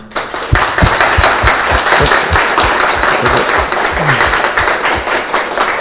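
Steady, dense applause from an audience at the close of a talk, many overlapping claps forming a loud, continuous crackling wash with sharper individual claps standing out, sustained for several seconds.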